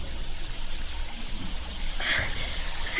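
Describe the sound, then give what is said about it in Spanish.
River water rushes and churns steadily throughout, with a sharper splash breaking through about two-thirds of the way in as a woman plunges a crying little boy's body and head into the river to drown him, before the flowing water continues. “Agarró al muchacho de la cabeza y metió todo el cuerpecito y su cabecita al río para ahogarlo.”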